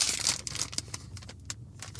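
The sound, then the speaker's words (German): Steady crinkling and rustling of plastic, a bag being pulled open with irregular crackles and a few sharper snaps. Nobody speaks. “Ich habe die Vermutung, dass ich die Scheiße hier gar nicht aufbekomme ohne eine Schere.”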